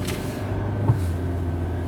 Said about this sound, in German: Hört sich mein Auto jetzt endlich erstmal wieder an wie ein Auto. Und ich hoffe, das bleibt jetzt auch so. Weil äh, das mit dem Radlager, äh, das war schon echt fies.